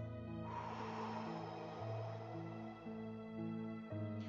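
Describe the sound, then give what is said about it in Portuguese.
A long, deep yoga breath drawn in and then let out to clear the mind, airy, with steady soft music sustaining underneath throughout. “Quando você sentir aquela raiva descontrolada ou aquele desespero sem causa ou ah, repentino, inspire profundamente e exale em seguida para limpar a mente.”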